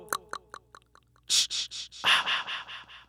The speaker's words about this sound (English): if we click on the effects tab, we do have the ability to add an echo and reverb, and we can tie these to smart pads if we want to toggle them on or off very quickly. Let's go ahead and see what it sounds like when we turn on an echo.